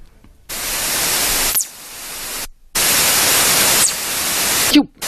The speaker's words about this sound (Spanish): pues con el único nombre que se podía llamar, que es ráfaga rápida de radio